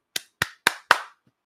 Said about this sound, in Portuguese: Salva de palmas pro, pro Joy.